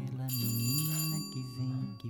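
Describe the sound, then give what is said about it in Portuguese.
A doorbell rings with a steady, bright electronic tone that sustains for a couple of seconds, while a voice talks underneath it. “Carlos, atende a porta!”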